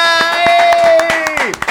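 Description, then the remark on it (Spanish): Steady rhythmic hand clapping, fairly loud, about eight claps in quick succession, while a voice holds a long sustained cheering tone that slides downward at the end. “¡Aplausos”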